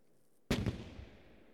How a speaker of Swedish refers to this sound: Alltså och, förlåt, förlåt det, jag måste bara gå till fönstret och kolla om det är fyrverkerier.